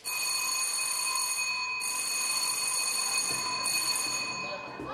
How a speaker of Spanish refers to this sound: Recuerdo perfectamente el primer día que llegué, llamé al timbre